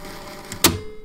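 A cassette tape is flipped in a deck: a soft plastic click, then a sharper, louder clunk as it seats, against a faint background hum.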